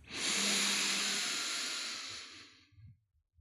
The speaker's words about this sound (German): Gegebenenfalls schließ deine Augen, wenn du nicht gerade mit dem Auto fährst und atme mal vier Sekunden lang durch die Nase tief ein.